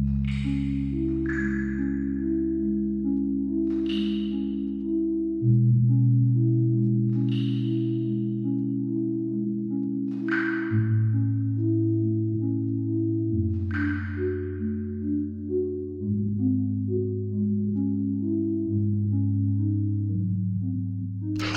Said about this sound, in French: En fait, c'est le plus grand instrument de musique du monde. Il fait pas loin d'un hectare et demi quand même. Ouais, ouais, ouais, en fait, c'est une grotte de Virginie qu'un homme a décidé de transformer en orgue en 1954.